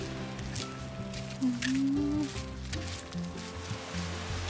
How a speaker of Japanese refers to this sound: いい音波の音穏やかな波ですね